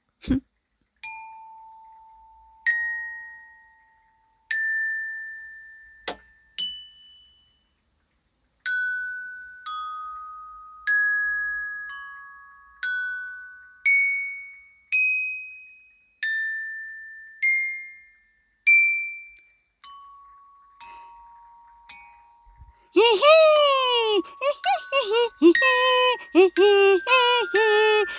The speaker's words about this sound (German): Balli sprang und probierte die verschiedenen Töne aus. Jedes Mal klang es anders, je nachdem, welche Kirsche er an anklickte.